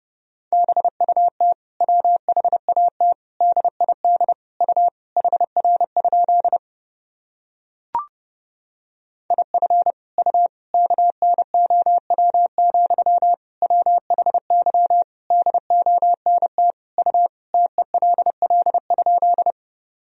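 A steady single-pitched tone keyed rapidly on and off in fast Morse code dots and dashes at 30 words per minute, clear, with a short pause midway and a brief click before the sending resumes.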